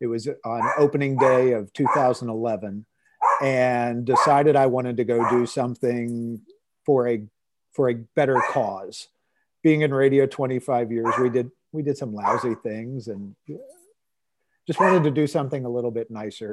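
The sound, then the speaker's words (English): Dogs bark intermittently in the background while a man talks steadily in the foreground, the barks sharp but partly buried under his voice. “And I am sorry about the dogs, but it's okay.”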